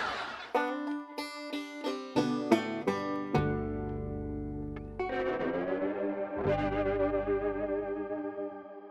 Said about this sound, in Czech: Odpuste hudební intermeco, snad jste si ho užili. To, co jste právě slyšeli, byla píseň